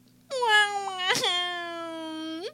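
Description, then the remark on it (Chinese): A baby monkey cries in one long, high, whining wail with a brief harsh catch partway through and an upward lift at the end, over a faint steady hum. “小猴子，小猴子，爱哭鼻子的娇气包。”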